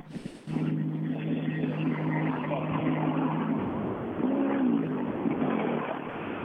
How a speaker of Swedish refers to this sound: Det börjar komma lite bilar igen här. Ja, Per Eriksson har kommit in.